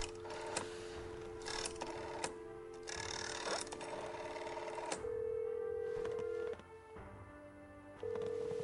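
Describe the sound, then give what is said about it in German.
A phone call being placed: a flurry of quick dialing tones and clicks, then steady ringback tones that repeat with pauses, clear with no one talking. “Wir Müssen erstmal hier äh, Rico anrufen, wo der schon wieder unterwegs ist.”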